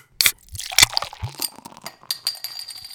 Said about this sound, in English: do you want to get this party started by cracking open a cold one with the boys?